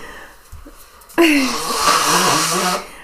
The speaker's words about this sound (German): So, Bock, muss meine Nase putzen.